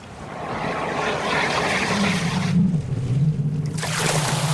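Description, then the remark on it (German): Steady, loud rush of churning river water, foaming and splashing continuously as a giant turtle slowly surfaces, with a low droning undertone rising partway through. No voices are heard. “Ich bin noch keine zehn Schritte gegangen, da tut sich etwas im Wasser. Es schäumt und spritzt.”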